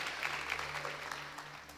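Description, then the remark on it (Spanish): A church audience applauds the Lord, a dense, steady wash of many hands clapping at once with no individual claps standing out, holding an even moderate level throughout with a low hum underneath. “Si va a aplaudir, apláudalo al Señor con todo sus fuerzas.”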